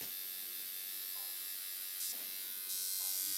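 A tattoo machine buzzes steadily in the background, a thin, high-pitched electric drone that holds constant for the whole stretch with no pauses.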